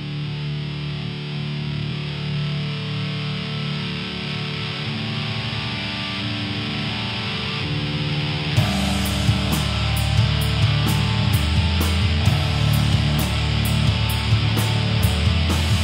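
A heavy rock song with thick, distorted guitar drone holding steady, then drums crash in halfway through with a regular cymbal beat as the wall of sound grows louder.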